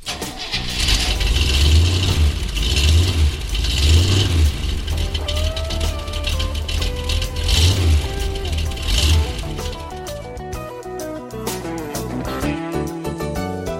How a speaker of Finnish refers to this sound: Kone käyntiin.